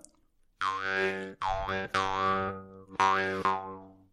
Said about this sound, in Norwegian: Nå er vi jo på radio, så dette musikkinstrumentet er jo i en sånn liten fiffig eske av sedertre. Og selve munnharpen er da, den er jo da håndsmidd. Det er vel messing. Og så er det selve fjæra. Så nå skal jeg gi litt lyd her.